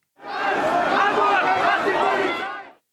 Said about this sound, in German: Ganz Hamburg hasst die Polizei. Ein Slogan, der an diesen Tagen oft auf Hamburgs Straßen zu hören ist.